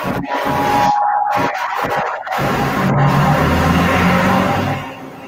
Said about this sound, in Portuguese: Nossa, que barulho foi esse? que é isso? É o trânsito de São Paulo. Ah, tá. Esse assim, barulho estranho.